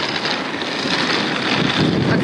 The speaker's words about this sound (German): Ich hoffe, der Wind ist nicht zu krass.